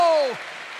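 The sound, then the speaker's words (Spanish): An audience claps for the Lord in a dense, steady wash of applause, briefly overlapped at the start by a voice trailing off in a falling pitch. “Ahora dele fuerte ese aplauso al Señor.”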